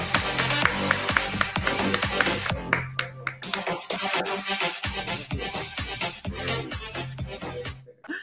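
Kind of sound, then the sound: crowd, audience applause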